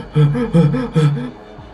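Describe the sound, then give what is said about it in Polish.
A voice imitates panicked hyperventilation with three quick, strained gasping breaths in a fast rhythm, fairly loud, then trailing off. “wydaje ci się, że słyszysz, no bo przez takie drzwi chyba nie słyszysz, ale tak jakby mhm. Y, y, hiperwentylację, nie?”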